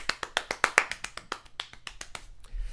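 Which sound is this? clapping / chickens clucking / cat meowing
clapping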